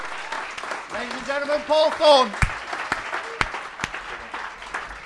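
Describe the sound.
An audience claps steadily throughout for this week's panel, Miles Jupp, Sara Pascoe, Nathan Caton and Michael Deacon, while a man announces over the applause, with a few sharp, louder claps standing out near the end.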